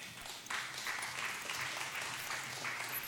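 The crowd at Lucca Comics applauds to welcome a guest onto the stage, a dense wash of many hands clapping that swells after a brief moment and holds at an even, fairly loud level throughout.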